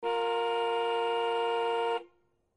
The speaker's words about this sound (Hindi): आगे वाली गाड़ी लाइट ग्रीन होने पर ना बढ़े तो ए लंबा हॉन्क